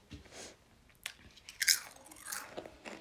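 Crunching on ready-made nachos: a series of sharp, crackly bites and chews, irregular in rhythm, with one especially loud crisp crunch midway, and no talking.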